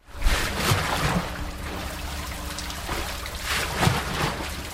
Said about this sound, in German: Die Mühlenräder drehen sich und in diesem Fall ist der rauschende Bach der Rhein. Der Schiffsrumpf ist aus Eisen, das darauf gesetzte Haus aus Holz. An den Wänden auf Uferseite und Rheinseite ist außen jeweils ein großes Holzrad befestigt.